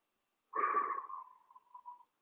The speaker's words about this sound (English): So let's take a deep breath in. and slowly exhale through the mouth as if you're breathing out through a straw.